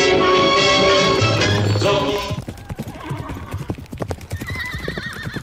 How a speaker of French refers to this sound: il y avait des chevaux partout. Un cavalier qui surgit lors de la nuit court vers l'aventure au galop